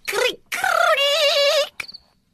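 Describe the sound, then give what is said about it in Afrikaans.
A voice imitates a black cricket's chirp, made by the insect rubbing its two large rough hind legs together, with a short squeak, then a long, shrill, wavering trill, fairly loud, ending in a brief breathy tail. “Toe die insek sy twee groot skurwerige agterpote teen mekaar vryf, hoor Mani Muur en Driekie Dassie weer die harde skuurkrap geluid.”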